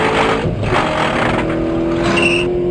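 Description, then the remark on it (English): A car speeds along the road with a loud, steady roar of engine and rushing tyre noise, the engine pitch climbing slightly as it drives on. No one speaks. “You already have my attention with the way you're driving.”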